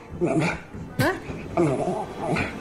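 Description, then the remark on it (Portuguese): A dog makes a string of whiny, drawn-out vocalizations with rising and falling pitch, almost like it is trying to talk, with one sharper yelp in the middle, responding after being asked whether it wants cheese. “Achas que na cabeça do cão não está explícita a imagem de uma mamãe?”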